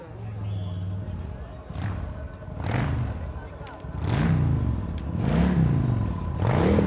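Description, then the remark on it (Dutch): A motorcycle of the Ravens revs up and down several times in quick succession, its pitch swelling and falling as it rides across the grounds over a steady outdoor background hum. “Er rijdt nu gewoon een complete motor van de Ravens over het terrein heen.”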